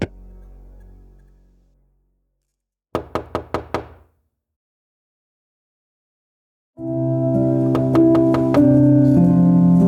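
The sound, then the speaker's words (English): A quick run of five firm knocks on a door, fairly loud, between a fading low tone and a swell of music that rises afterward. “She could not remember how long she stayed awake as the series of knocks continued before falling into an exhausted sleep.”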